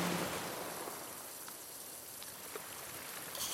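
A steady, continuous wash of ocean waves, a soft rushing hiss of surf that holds fairly even throughout with a slight swell near the end, and no voices.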